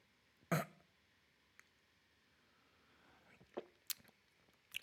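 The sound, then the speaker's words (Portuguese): Quiet sounds of drinking tap water from a small cup that is part of a canteen set: one pronounced gulp near the start, then a soft click, and a later cluster of small sips and swallows. “Oh, vou cipar mais uma aguinha, já.”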